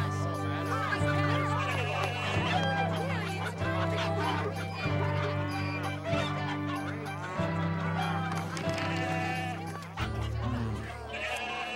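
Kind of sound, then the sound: bird, chickens clucking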